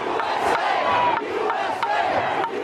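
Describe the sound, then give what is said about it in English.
A rioting crowd at the United States Capitol, violent towards police and trying to gain access to the building, shouts and roars in a loud, unbroken mass of voices, with sharper yells bursting out every second or so over the dense, steady din. “due to the violent behavior towards the police officers there and their intent on gaining access to the to the Capitol, a riot was declared.”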